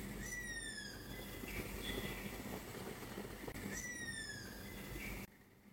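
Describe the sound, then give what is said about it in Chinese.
Two drawn-out, downward-sliding shrieking calls of a spotted wood owl, about three seconds apart, sound over a steady low rumbling background that cuts off abruptly at the end. “我推荐你搜一下林雕鸮，这个我当时真的是。嗯，在他面对面听过，尤尤其是伸手不见五指的夜里，非常瘆人。”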